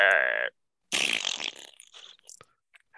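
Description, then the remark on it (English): A short electronic tone, then a loud fart sound effect played by an Alexa smart speaker on request: a wet, sputtering blast that trails off into a few smaller, fainter pops and puffs. “I'll be like, "Hey Alexa," she'll be like, "Hey," I'm like, "Give me a big fart."”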